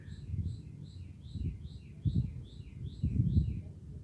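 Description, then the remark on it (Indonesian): Repeated high, quick bird chirps flit across the scene in the morning, layered over a steady low rumble of outdoor ambience, with no one speaking. “asik buat mendengarkan suara alam, suara kendaraan yang lewat, suara burung,”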